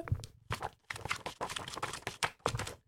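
Paper pages riffle and crinkle in quick, uneven bursts as a psychologist rapidly leafs through her planner, with soft rustles between the louder page flips.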